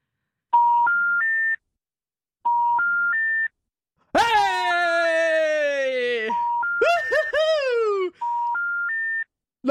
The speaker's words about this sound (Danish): Så nu ringer vi op på det nummer, vi har på